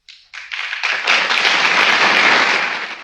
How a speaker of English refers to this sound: And then the clapping, of course, is eight times louder than him speaking.